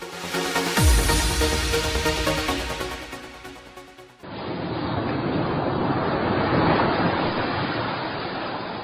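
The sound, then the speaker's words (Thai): A few seconds of musical jingle cut abruptly to steady ocean waves breaking and washing onto the sandy beach at Hat Sai Kaew in Thailand, a full, continuous roar of surf with no voices. “ถ้าเอาเสียงคลื่นที่หาดทรายแก้วเข้าเครื่องแปลภาษาเขาคงจะบอกเราว่า มาเที่ยวที่นี่สิ หาดทรายขาวน้ำทะเลใส รอคุณอยู่แล้ว”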